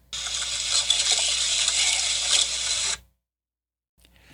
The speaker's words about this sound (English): So there's a lot of crumbling going on. Okay, I think that is ghost digging through its purse.